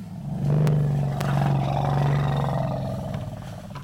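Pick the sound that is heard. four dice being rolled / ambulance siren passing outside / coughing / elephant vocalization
elephant vocalization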